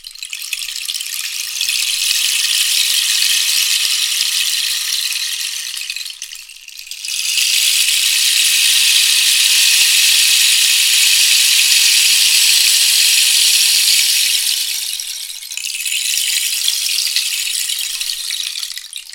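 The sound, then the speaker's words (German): A long rainmaker rain stick, rather than a short one, is tilted back and forth, producing a steady, bright hiss of trickling pellets in three long pours separated by brief lulls, fairly loud and with no voices. “Und das ist eben etwas, was ihr mit den kurzen Rainmakern so nicht hinkriegen werdet.”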